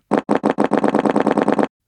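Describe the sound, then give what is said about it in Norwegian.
A rapid, rattling fart fires off in a quick string of about a dozen evenly spaced bursts, loud, sounding like machine-gun fire before cutting off abruptly. “Noen kan høres ut som en maskinpistol,”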